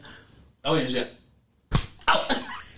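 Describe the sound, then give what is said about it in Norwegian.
A single sharp, playful slap lands, a quick smack between bursts of vocal sounds from people. “Det var, jeg fikk klaska til litt.”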